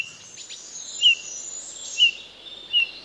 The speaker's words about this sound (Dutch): Inderdaad, u heeft hem ongetwijfeld herkend, toch? De goudvink, juist, haalde het van de hop en van de bonte specht en neemt de titel over van de steenuil. De goudvink is niet goudkleurig, maar roze.